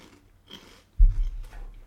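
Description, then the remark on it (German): Crunchy bacon-flavoured snacks being eaten: a few crisp bites and crackling chews in irregular bursts, followed by a louder, low muffled crunch partway through. No talking. “Dabei essen wir unsere, unsere Bacon-Snacks.”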